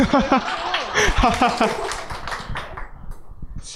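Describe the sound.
Laughter and voices give way to audience applause: a dense patter of sharp, overlapping claps at moderate volume that gradually thins out.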